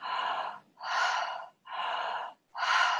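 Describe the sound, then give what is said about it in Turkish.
Four loud, breathy mouth breaths alternate in and out at a steady quick pace, each lasting about half a second with brief gaps, with no talking. “Mesela daha ağızdan nefes alıp verebilirsin.”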